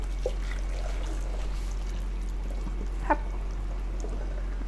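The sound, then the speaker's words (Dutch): Boiling-hot water being poured off from a pan, a steady splashing trickle that runs throughout at low volume, with a couple of brief clinks along the way and no voices. “En dan giet ik me af.”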